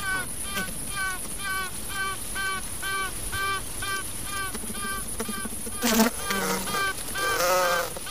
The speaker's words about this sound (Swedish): Men även en paradrottning kan pipa eller tuta när den släpps ut i kupan. Man tror att pipandet är någon form av stridsrop för att meddela konkurrerande drottningar och visa arbetsbina deras vilja att slåss.